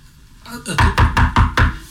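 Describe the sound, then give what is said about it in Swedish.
Five quick, evenly spaced knocks on a window glass ring out fairly loud, following a brief softer tap, with nothing else happening around them. “Knackar från fönstret någon annanstans.”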